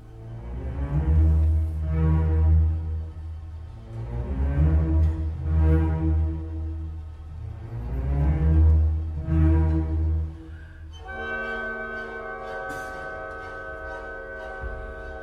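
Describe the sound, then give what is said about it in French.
Orchestral music from a witches' sabbath movement: heavy, swelling low phrases repeat every few seconds, then give way to steadier, brighter sustained tones with a bell-like ring. No voices. “Le songe d'une nuit de sabbat de Berlioz, c'est justement euh, illustratif de, ça, de ce que le rire surgit en fait”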